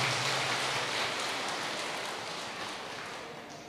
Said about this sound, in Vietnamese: chúng ta cho dàn pháo tay nha quý vị